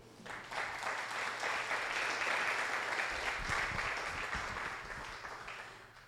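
A crowd applauds for about six seconds, a dense, steady wash of many hands clapping that swells quickly, holds, then tapers off at the end.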